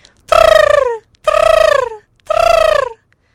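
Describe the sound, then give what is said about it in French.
A bird gives three loud, harmonic calls in a steady rhythm, each lasting under a second and sliding slightly downward in pitch, with short pauses between them. “L'oiseau répond, elle rentre dans une subjectivité aviaire, secret sensible, et par ses vocalises, l'oiseau signale la présence d'une amie.”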